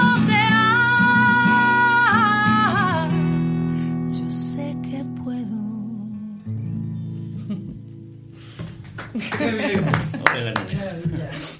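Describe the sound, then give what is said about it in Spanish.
A Spanish-language sung melody with sustained instrumental notes fades out, followed by a short, modest burst of audience applause, scattered and somewhat hesitant, lasting a few seconds at the end. “Los aplausos hombre del público.”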